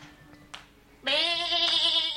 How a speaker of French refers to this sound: Jali La chèvre d'Esmeralda